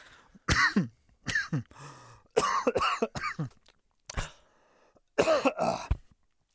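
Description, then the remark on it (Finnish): A loud coughing fit after water went down the wrong way: several harsh, raspy coughs in uneven bursts with short pauses between them, some sounding like throat-clearing, with no speech. “editointimies ottaa varmaan mun yskimiset pois ja mun mielestä ne on hyvä jättää.”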